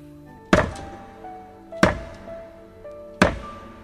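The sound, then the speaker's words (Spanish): Three heavy, dull thuds land at a slow, even pace, a long hammer pounding hard against a thick brick partition wall in a basement, each blow loud and sharp with a short ringing decay. “golpeó y golpeó con fuerza el tabique de gruesos ladrillos hasta que logró derribar un buen trecho.”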